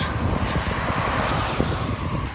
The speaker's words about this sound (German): Wind immer noch von vorne. Fast ein 27er Schnitt bis jetzt.